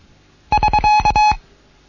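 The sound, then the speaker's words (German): A Morse code signal for "wait", as used in amateur radio traffic, given in a Morse practice lesson: a steady, fairly high-pitched beep keyed into a quick run of short dots and longer dashes, loud and clean, lasting under a second with no voices. “warten, bitte warten, warten.”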